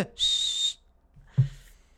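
A single sharp, shrill whistle blast lasting about half a second, loud, followed by a brief low thump and some faint rustling.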